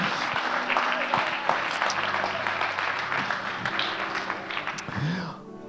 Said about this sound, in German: Und äh, lasst uns mal die Leute in der Baby Lounge und äh, am Podcast einfach mit einem Applaus begrüßen.